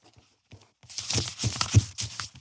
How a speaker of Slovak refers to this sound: Počúvajte pekne, takto to tu šuští.